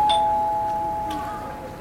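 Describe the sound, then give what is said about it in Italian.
A single electronic doorbell chime, rung by a visitor, rings out clearly, its bright tone sustaining and slowly fading over about two seconds, with a faint background hiss underneath. “E, eh, e eh, suono io dai che tu hai le mani occupate.”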